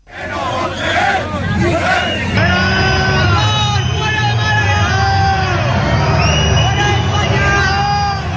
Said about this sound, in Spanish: fuertemente abucheado estos días en las concentraciones de protesta organizadas frente a las sedes socialistas, escuchó ayer en primera persona gritos en su contra en Málaga, la entrada y la salida de su encuentro con el canciller alemán Olaf Scholz.